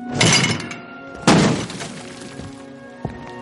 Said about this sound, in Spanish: Hagrid arranca la puerta para salir.